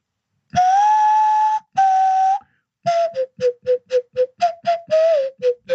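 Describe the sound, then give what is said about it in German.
A nose flute made of bubinga wood plays two long, steady breathy notes, then a quick run of about a dozen short toots at a slightly lower pitch, loud and alone, like a train whistle. “Das ist eine Nasenflöte.”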